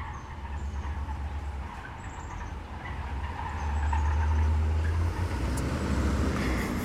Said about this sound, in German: okay, a car that is a car that is very broken uh, just drove by. I've never actually seen this in my life, so the the fundamental alignment of the car is off.